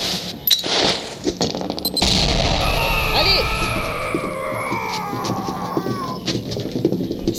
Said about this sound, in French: Prêt pour enfoncer la porte Dans 3, 2, 1. Enfoncez Grenade